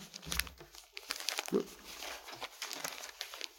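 Sheets of paper, copies of a letter by a rabbi, rustle and crinkle with several quick handling bursts and a brief louder crumple midway, as pages are shuffled and passed around, one page shared among three people.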